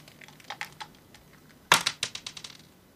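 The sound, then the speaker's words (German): A die clatters across a hard tabletop: a few light taps, then a sharp impact followed by a quick run of bouncing clicks that fade out. Fairly crisp, with no voices. “Warum, äh, was, aus welchem Spiel der Würfel geklaut ist, weiß ich nicht.”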